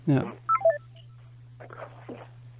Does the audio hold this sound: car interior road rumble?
no